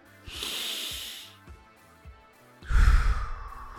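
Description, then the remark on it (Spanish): A slow, deep inhale through the nose, a short pause, then a louder, heavier exhale, breathy, with no talking, done as part of a one-minute breathing exercise. “Inhalas profundamente, luego exhalas.”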